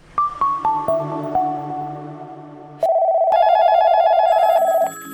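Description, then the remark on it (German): A short run of descending chime notes gives way to a loud electronic telephone ring, a steady warbling trill lasting about two seconds before cutting off. No one speaks. “verabschieden Sie sich von ständig klingelnden Telefonen und langwieriger Terminabstimmung.”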